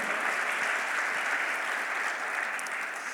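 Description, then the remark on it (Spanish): A crowd applauds steadily, a dense wash of many hands clapping at an even, sustained level for the whole few seconds with no voices breaking through; the applause is given for the word of the Lord. “Dele un aplauso a la bendita palabra del Señor.”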